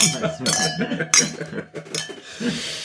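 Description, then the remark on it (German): Glasses of sparkling wine clink together in a toast before work begins, three or four bright ringing taps spread over a few seconds, with people chattering and murmuring underneath. “Anstoßen und dann Arbeitsbeginn.”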